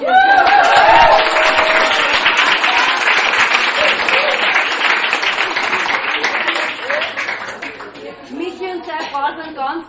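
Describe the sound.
An audience bursts into sustained applause for the performer on stage, a dense wash of many hands clapping that holds strong for several seconds, then thins out toward the end as scattered voices and laughter come through.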